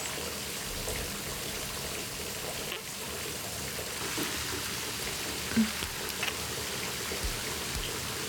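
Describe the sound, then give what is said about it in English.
Steady shower water runs and hisses evenly throughout, the spray pattering, with a soft murmur from someone partway through. “Water running down between us.”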